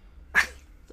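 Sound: sneeze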